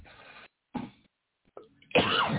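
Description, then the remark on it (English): A string of throaty coughs, three or four short bursts broken by brief silences, the final one the loudest and most drawn out. “My throat's still not being great and cooperating, so hopefully I don't have a coughing fit in the middle of it and ruin the show.”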